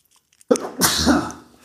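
A single loud, close-up sneeze: a brief sharp intake followed by a breathy, explosive burst that trails off over about a second, with no talking.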